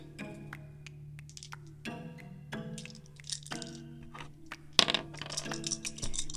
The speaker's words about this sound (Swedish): I och för sig jag får slå fyra tärningar, det blir väl bra.